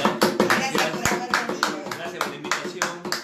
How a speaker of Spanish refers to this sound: Un aplauso.